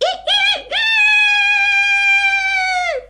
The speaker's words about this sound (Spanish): Y un gallo que cacareó.